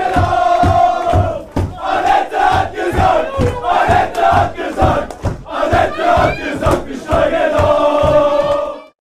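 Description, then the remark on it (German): A large crowd of Osnabrück football fans chants loudly in unison at a promotion celebration, a rhythmic, repeated sung phrase punctuated by steady beats, sustained and energetic throughout with no separate speech. “Das war die äh, Osnabrücker Aufstiegsfeier und die haben damals gesungen, wenn man es nicht ganz verstanden hat.”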